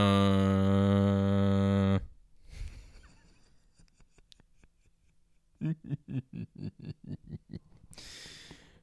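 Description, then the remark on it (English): A voice imitates a loud, steady buzzing drone for about two seconds, then quiet scratchy rustling follows, ending in a quick run of short rhythmic bursts. “I bought a, I bought a drone, but it was too loud. It was just uh.”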